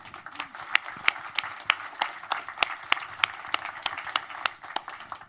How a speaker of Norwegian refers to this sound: Velkommen opp. Og gi dem en applaus.